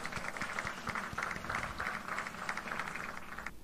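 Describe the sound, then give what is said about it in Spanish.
A crowd applauds steadily for a few seconds, a dense wash of many overlapping claps at fairly constant loudness that cuts off abruptly near the end. “Aplauso.”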